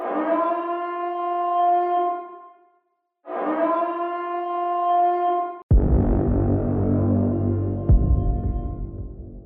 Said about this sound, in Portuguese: Escutei um som de alarme ao fundo, um som profundo e alto.